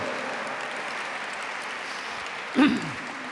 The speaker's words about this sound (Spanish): Dale un fuerte aplauso al que vive por los siglos de los siglos y es Dios eterno.